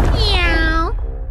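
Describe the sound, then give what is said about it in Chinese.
A single drawn-out meow made by a human voice imitating a cat character in a told story about a cat and boots, rising then gliding down in pitch, lasting just under a second over a low steady background hum. “喵。”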